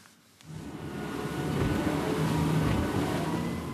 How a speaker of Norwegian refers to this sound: Vi er ute med politibåten utenfor Stavern i Vestfold. To motorer med 300 hester i hver gir luft i luggen. Kjørte i 30, og så går den 55, så det er, det ja.